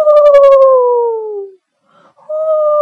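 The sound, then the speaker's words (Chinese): Under moonlight, a father imitates a great horned owl's hoot: one long, loud, hollow call that slides gently downward, then a short silence before a second hoot begins at a steady pitch. “学的是大脚猫头鹰的叫声：“呼！”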